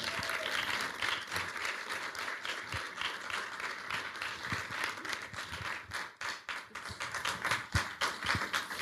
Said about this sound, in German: Dann würde ich sagen, wie wäre es, wenn wir mit einem äh, tosenden Applaus unsere Gäste nach vorne bitten,